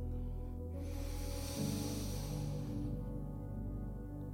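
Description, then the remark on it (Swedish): A long, deep breath drawn in, a steady airy rush lasting a couple of seconds over a low sustained musical drone, with no talking. “Tar ett djupt Vi andas in.”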